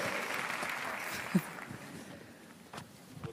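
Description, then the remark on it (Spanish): An audience claps steadily in a dense, crackling wash of applause that gradually thins and fades toward the end, with a few louder isolated claps near the finish and no talking. “Un aplauso una vez más.”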